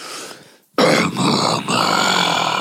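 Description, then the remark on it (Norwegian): A voice makes a low, rumbling grunt-like growl, imitating the stomach gurgling of someone who has only drunk coffee today and eaten nothing. It starts with a soft murmur, breaks for a moment, then swells into a loud, sustained rumble. “når det rumler i magen din, så høres det ut som jordas indre som er i ferd med å kollapse.”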